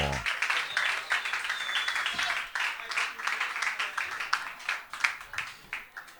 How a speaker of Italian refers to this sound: Signore e signori, un applauso per gli ….